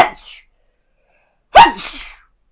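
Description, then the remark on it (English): A single loud sneeze bursts out sharply after a short quiet pause, its breathy tail trailing off over about half a second. A fainter breathy sound is heard at the very start. “Oh Jesus, bless you!”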